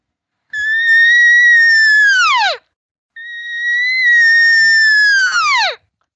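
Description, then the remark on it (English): Two long, high, drawn-out squealing calls, each holding a steady pitch before dropping sharply at the end, separated by a brief pause; an imitated cow elk regathering call calling other elk to come over, loud, with no talking. “the regathering sound can mean I don't know where you guys are at. Where are you?”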